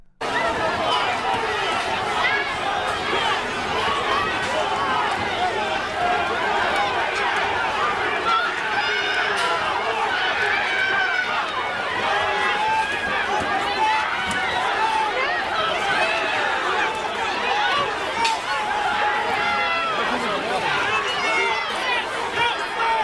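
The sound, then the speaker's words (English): A loud, dense crowd of far-left rioters trying to storm the White House in May 2020, surging, with many overlapping shouting voices and agitated hubbub forming a continuous roar and scuffling that never lets up. “in May of 2020, mobs of far left rioters tried to storm the White House.”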